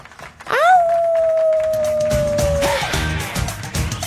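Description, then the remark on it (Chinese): A single long wolf howl swoops up sharply, then holds a steady, slightly falling tone for about two seconds before fading, leaving a low rumbling background. “久违的沙发君，久违的狼嚎啊！”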